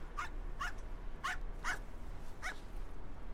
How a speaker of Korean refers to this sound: 개가 짖는다.